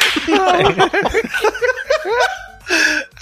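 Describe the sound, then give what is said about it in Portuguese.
Chuckling and laughter fill most of the moment, then a single loud, broad, sharp slap of a hand on buttocks lands near the end. “Não um tapa na bunda do pai.”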